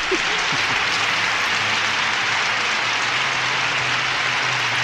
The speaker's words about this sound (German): Extra langer Applaus. Danke. Am Ende, am Ende bricht der Empfang ein bisschen ab von dem Applaus.